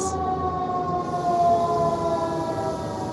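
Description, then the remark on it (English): A sustained emergency siren wails steadily outdoors, its tone holding strong over low background rumble, fairly loud and continuous with no voices present. “The, that's it's they're the finally sirens.”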